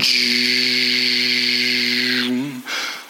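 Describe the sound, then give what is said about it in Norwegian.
A voice imitates an automatic train toilet door sliding shut after a button is pressed: a steady hissing whoosh with a low hum underneath, held for about two seconds, then a quick drop and a short airy puff at the end. “så må du trykke på en ny knapp, og så går døra sånn”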